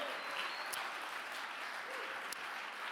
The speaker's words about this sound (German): gib dir mal einen Applaus. Vielen Dank fürs Mittragen.